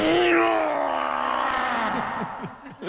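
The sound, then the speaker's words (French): A man at a gym lets out a long, strained groan of effort that slowly falls in pitch, ending in a few short breathy grunts. Loud, with no talking. “Une salle de sport où l'on entend ces hommes, souvent drôlement bien bâtis, faire des”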